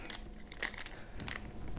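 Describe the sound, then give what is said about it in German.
A plastic bag crinkles and rustles as a Thomann plastic nose flute is pulled out of it, a continuous crackle with a few sharper bursts, no voices. “Aber ich glaube, da ist noch was drin in der Tüte.”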